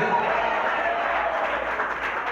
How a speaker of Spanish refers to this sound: Aleluya, más fuerte ese aplauso y a su nombre, y a su nombre.